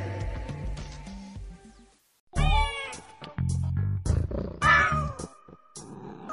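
A cat meows several times in quick succession, loud, the calls rising and falling in pitch with brief gaps between them and no talking.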